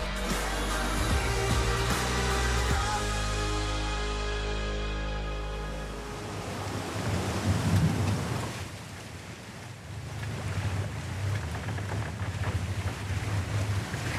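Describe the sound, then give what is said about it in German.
Wind and ocean waves at sea, loud, with a low steady drone for the first several seconds that gives way to rushing, surging water and gusting wind noise. No voices. “stützt sich in Rettungsboot Nummer 2 ab, als eine weitere Welle es anhebt.”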